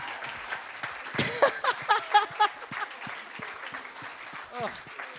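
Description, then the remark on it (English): Live audience applause at the end of a show, for the guests Dilruk Jayasinha, Xavier Michelides, Dave Callan and Josh Earl: a steady dense crackle of many hands clapping for several seconds, with a burst of whoops and cheering voices rising over it near the middle before it settles again. “Big round of applause for Dilruk Jayasinha, Xavier Michelides, Dave Callan, Not Scottish, Josh Earl.”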